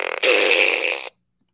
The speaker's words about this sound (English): The secret of this fart gun is it doesn't. I don't. It's a randomized fart noise. Right. And just always so magically is like the perfect short or long fart at the right times. It's, it's intuitive.